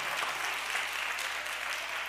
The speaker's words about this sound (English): Every hand really ought to be clapping in the house and praising his name.